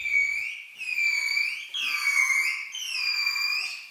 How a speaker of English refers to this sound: In the experiment, the dolphin swims into this funny little floating plastic helmet looking thing that's positioned over its head, and then the trainer asks it to make its normal whistling call for two minutes for a fishy reward.